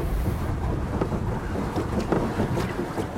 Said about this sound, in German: Oh, Wind. Wollen wir drehen? Uiuiui, ja. Ho, ho, ho. War ein Wind.